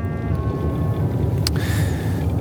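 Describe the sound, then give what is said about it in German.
Steady low rumble of a car with three people aboard driving along the airport road in Iceland at 0:26, heading toward northwest Iceland, heard from inside the cabin, with a brief sharp click or tap partway through and faint tonal whine above the hum. “Ich sitze mit zwei Männern im Auto, die ich kaum kenne. Und wir fahren die Flughafenstraße um 0.26 Uhr für die nächsten zweieinhalb Stunden Richtung Nordwest-Island.”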